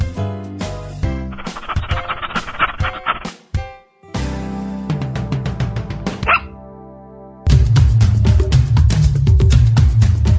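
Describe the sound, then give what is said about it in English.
Loud, rapid dog barks repeat in a steady rhythmic pattern over a musical backing, with a brief dip in the middle before the barking resumes even louder. No one speaks. “Sit, stay it's a doggy dog world.”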